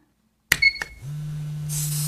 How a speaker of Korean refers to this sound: 이제 종아리 들어가는데요. 음. 여기는 기계로 진행이 됩니다. 아, 미세한 전기 진동으로 하는 거거든요.